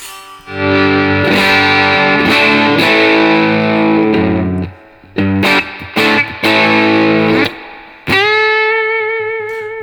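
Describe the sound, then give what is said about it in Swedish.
Electric guitar played through an effects pedal at a default, low-gain setting: lightly overdriven sustained chords, then a few short choppy stabs and one final ringing chord, with no talking. “Eh, så här låter eh, den då, då eh, grundinställning kan man säga.”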